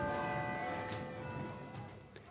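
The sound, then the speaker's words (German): Church bells ring in Jerusalem, their sustained, shimmering tones hanging and slowly fading over a soft outdoor background hum, fairly quiet overall. “Andauernd läuten Glocken in Jerusalem. Es gibt hier Dutzende Kirchen und Kapellen auf engem Raum beieinander und irgendwo bimmelt es immer.”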